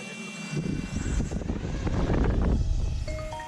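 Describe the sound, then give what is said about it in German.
Racing drones spin up and lift off, their propellers whirring in a loud, steady buzz with high whining tones that swells and holds, with no voices; drones flown by German Aerospace Center researchers testing whether they can measure wind at an observatory. “Okay, Drohnen sind entsichert.”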